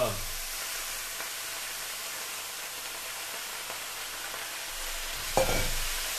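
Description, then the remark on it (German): Wet spinach leaves hit hot olive oil in a pan and crackle in a loud, steady hiss of frying that fills the whole clip, louder because the leaves are wet, with a brief clatter near the end as the pan is stirred. “Olivenöl ist heiß. Rein mit unserem Spinat.”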